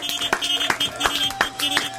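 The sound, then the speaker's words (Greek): Steady, rhythmic clapping, about five crisp claps evenly spaced roughly a third of a second apart, over a faint sustained tonal hum in the background. “Ένα χειροκρότημα από πριν.”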